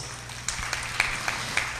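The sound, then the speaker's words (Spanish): A crowd claps together in a steady, rhythmic beat, giving an applause to the King of Kings. The sharp claps rise every quarter second or so over a soft, continuous patter of scattered hands. The applause stays moderately quiet throughout. “¿Cuánto le pueden dar un aplauso al Rey de Reyes?”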